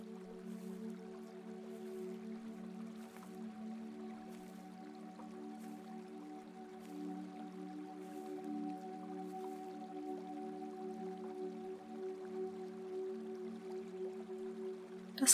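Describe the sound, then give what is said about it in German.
A steady, soft wash of a small river flowing through a forest clearing runs continuously, with faint drips and trickles scattered through it. It is fairly quiet and even, with no voices. “Die Geräusche des Wassers begleiten dich.”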